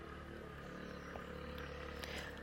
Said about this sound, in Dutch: En nu kwam er net iemand voorbij gesjeest op zijn brommertje. Want ik zit hier dus midden in de natuur, in een berggebied een Berbers stuk land in Marokko,